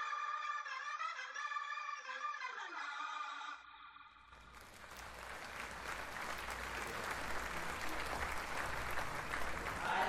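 A few seconds of a bright, tonal musical passage with stacked harmonics give way to a brief pause, then sustained, dense applause swells and continues steadily to the end as the show Herzfrequenz returns.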